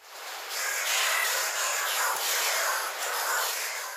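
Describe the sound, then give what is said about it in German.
A dense, continuous din of harsh, screeching calls from a group of oilbirds in a cave, used to communicate and for echolocation, loud and overlapping with a reverberant wash and no clear gaps. “Ein Fettschwalm? Korrekt”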